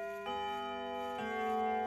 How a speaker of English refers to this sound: Just then, the clock struck midnight.